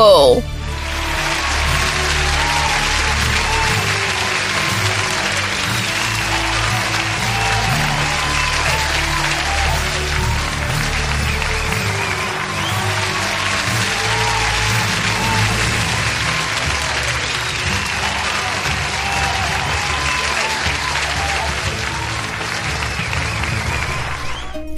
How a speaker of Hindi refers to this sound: stage पर आवाज गूंजी और सारा हॉल तालियों की गड़गड़ाहट से गूंज उठा